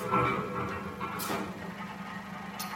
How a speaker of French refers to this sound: Les unes sur les autres, les carcasses se tassent. Leur superposition fait grincer celle d'en dessous.